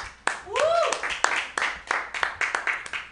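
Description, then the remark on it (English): Sparse, uneven clapping from a small part of a crowd, audience members who have grown their own cannabis, a few dozen sharp claps in an irregular pattern, with a brief rising-and-falling whoop near the start. “I don't know if you've ever clap if you've grown your own cannabis.”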